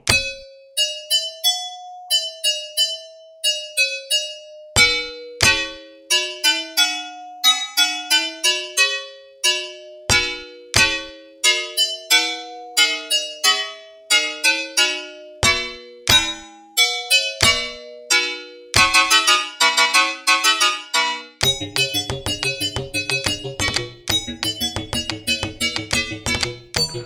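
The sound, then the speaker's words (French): A tune assembled from sounds recorded from an electric rice steamer, recreating the music of the game Attack on Titan: bright, beeping chime notes form a quick melody, and clattering layered tones and clicks build up near the end. No voices. “il avait un cuiseur vapeur électrique pour cuire le riz. Alors pareil, il a enregistré tous les bruits qu'il pouvait faire avec, et ça lui a permis de restituer la musique du jeu Attack on Titan.”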